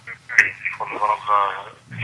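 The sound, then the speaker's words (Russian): A radio plays in the background over a caller's telephone line during a radio phone-in show, its voices thin and band-limited, coming through steadily for a couple of seconds. “Только давайте радио выключим.”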